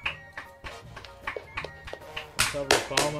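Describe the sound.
Applause welcoming a guest as he is introduced, in a steady rhythmic beat, sharp claps about three per second that grow louder and fuller toward the end, with a voice sounding underneath.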